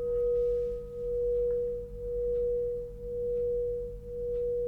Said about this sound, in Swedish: men det är magi. Eh, och hur alltså, lång efterklangen är, liksom, det här är ju då klockan, eller klangskålen.